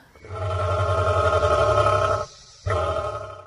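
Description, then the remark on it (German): A cassowary gives a deep, hoarse, rumbling call, loud, in two long growling bursts separated by a brief pause, sounding like a rough, throaty roar. “Guck mal hier, da klingt der Kasuar wiederum ja mehr nach so einem fauchenden Tiger.”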